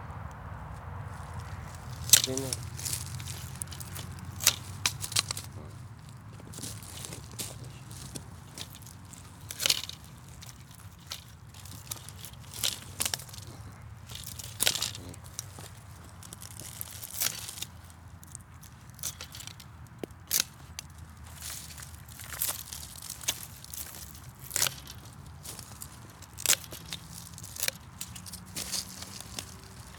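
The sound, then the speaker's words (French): Sharp, irregular snips and crunches of shears pruning grapevine canes, repeated every second or two against a low, steady outdoor rumble, with occasional rustling and footsteps. “à quel je j'ai commencé à tailler la vigne hein.”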